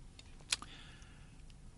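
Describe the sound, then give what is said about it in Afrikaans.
A quiet computer keyboard: one crisp keystroke click, a softer tap right after, and a few faint scattered taps against a low background hum, with no voices. “Kom rekenaartjie, dit is om nou net lekker opvars hierso.”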